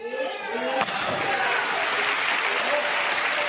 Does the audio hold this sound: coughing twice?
no